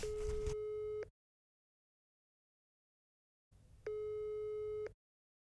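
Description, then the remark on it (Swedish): Two long electronic ringing tones separated by a stretch of silence, steady and moderately loud, from a phone call that goes unanswered. “Eh, han svarar inte.”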